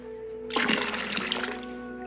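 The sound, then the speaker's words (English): Water pours out of a container in a single splashing burst lasting just over a second, loud, with a steady background hum and no talking. “And in this case, a container for the water, which you can think of as being my life force.”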